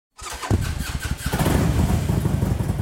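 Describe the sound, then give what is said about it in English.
The engine of a Harley-Davidson Road King police motorcycle cranks over and catches, settling into a loud, lumpy rumbling idle with a steady pulsing beat. No one speaks. “I have a unique um, motorcycle in the fact that it's a Harley Davidson Road King, but it's actually a, a police motorcycle that I was able to buy”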